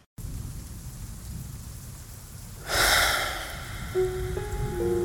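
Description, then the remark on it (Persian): Steady rain hisses throughout, then a rumbling thunderclap swells up near the middle and slowly fades, with a few faint tonal notes near the end. “بارون که میزنه دلم میخواد چترم رو بردارم برم تو خیابون”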